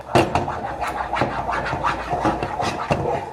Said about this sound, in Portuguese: E a gente vai misturar isso aqui. Vamos misturar até soltar o fundo da panela, viu? Igual brigadeiro mesmo. Quando a gente faz brigadeiro, misturando até soltar o fundinho da panela.